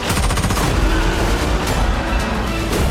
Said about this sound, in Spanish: Vaya ensalada de, no sé, me imagino de tiros, de momentos de acción, de lo que nos gusta, de Misión Imposible.